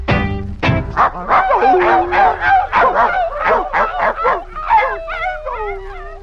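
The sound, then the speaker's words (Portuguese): A small poodle yips and barks in a quick, steady string of high, nasal calls, fairly loud, with no pause for about six seconds. “Vai embora. Come on. Cachorro mal. Serenade to a poodle.”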